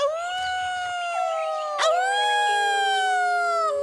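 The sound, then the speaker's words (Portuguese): A long, wolf-like howl of joy from warriors of the Homens-Lobo (Wolf-Men) tribe rings out loud, holding one wavering tone that lifts briefly midway and then slowly sinks, with no other sounds around it. “Muito uivavam os dois guerreiros”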